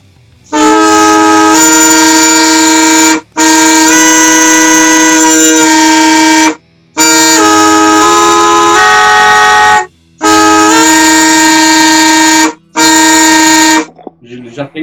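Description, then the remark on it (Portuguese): A loud, droning instrument in A Dorian tuning, the same tuning used in the film Alexandria, sounds five long held chords separated by brief pauses, its rich, buzzy tones stacked into a clashing, dissonant interval, with no voices over it. “É a mesma afinação usada no filme, que é um, é o Lá dórico. E aí ele começa aqui já e já tem um intervalo desse aqui.”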